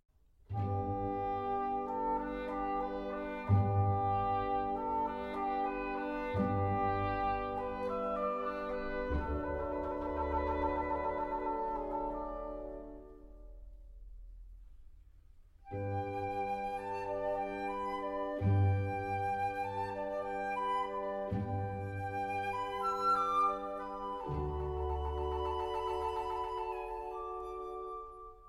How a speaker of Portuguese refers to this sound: terceira parte é o rústico Chamar das Vacas, com o seu solo bucólico de corne inglês, um oboé mais grave.